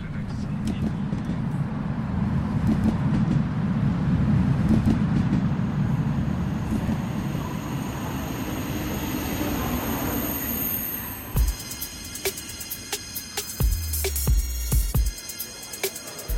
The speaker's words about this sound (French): Euh, vous êtes installé à bord du TGV Nuit 8603 à destination de Brest.